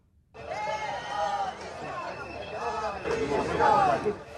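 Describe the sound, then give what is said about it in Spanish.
A crowd of protesters outside a theater shouts slogans in unison, such as "terroristas a prisión" and "ETA fuera de Madrid", many raised voices blending into a loud, rhythmic chant that swells and carries on steadily. “Gritos de terroristas a prisión y ETA fuera de Madrid, eso fuera del teatro anoche porque dentro aplausos y un teatro en pie tras finalizar la obra.”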